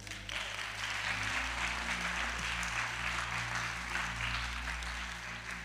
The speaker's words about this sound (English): And thank God for a bigger paycheck. Clap your hands if you want one.